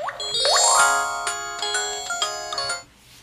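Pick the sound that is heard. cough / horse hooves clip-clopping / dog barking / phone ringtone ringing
phone ringtone ringing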